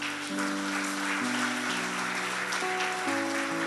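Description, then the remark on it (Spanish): An audience applauds steadily for a few seconds, a dense crackle of clapping over sustained keyboard chords that shift pitch a few times. No one speaks. The applause is given for God. “¿Por qué le damos un aplauso para Dios?”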